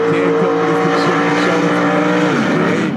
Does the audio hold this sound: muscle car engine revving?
yes